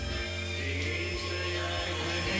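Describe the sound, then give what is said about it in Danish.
A vacuum cleaner drones steadily in another room, its motor giving a constant muffled whine and hum throughout, with no talking over it. “Øh, kan du lige slukke støvsugeren og skrue ned på musikken, indtil jeg er færdig med at sende, sende live?”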